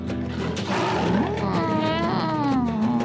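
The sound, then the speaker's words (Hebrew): A human voice imitates the roar of Marmara the tiger in a children's story: a loud, sustained, growling snarl lasting about three seconds, with the pitch rising and sliding down toward the end. “מטה מטה ולמטה, מטה מטה ולמטה, מטה מטה ולמטה, ישר לידיים של מרמרה הנמר.”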